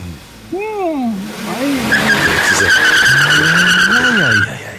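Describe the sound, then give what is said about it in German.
An engine revs up and down in swooping bursts, then tires let out a loud, sustained screech as a car tears away at speed, intense, with no talking. “jetzt ist er, jetzt ist er doch, jetzt ist er doch abgepäst wie, wie ein Irrer.”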